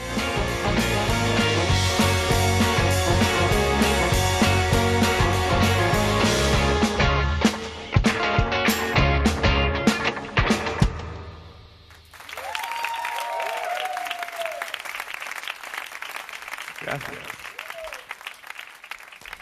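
A full band song plays loudly with steady bass and layered instruments, breaks into a few sharp drum hits, then gives way to sustained crowd applause.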